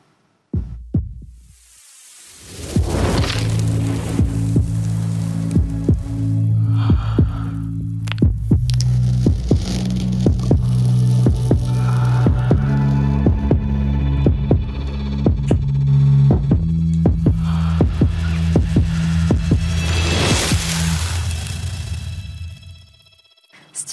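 A composed sound design piece created by IRCAM Amplify for the perfume Infrared by Victor Enrolf: a deep, layered electronic drone with steady throbbing pulses like a slow heartbeat, framed by airy swells of noise at the start and near the end, with no talking.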